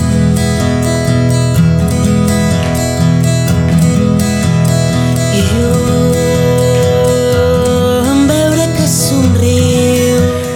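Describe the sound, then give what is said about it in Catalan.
A song requested by a listener plays on the radio, steadily and loudly, with sustained melodic lines and a full, dense accompaniment that continues without pause; no one talks over it. “Aquesta cançó és la demanava la nostra amiga Carmeta des d'aquí Trem la setmana passada.”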